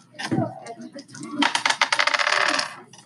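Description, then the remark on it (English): Dice are rolled for a speed check in a game, clattering and tumbling across a hard surface in a quick burst of sharp rattling clicks, fairly loud, after a brief earlier rattle. “Yeah, you're gonna have to roll speed to try to catch him. So roll your dice.”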